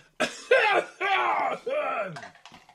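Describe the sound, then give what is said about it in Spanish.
A person coughs and clears their throat in a rapid series of four harsh, voiced bursts, loud, with no talking in between. “Voy a toser un montón.”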